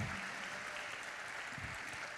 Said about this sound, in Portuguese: Vamos aplaudir a nossa liderança?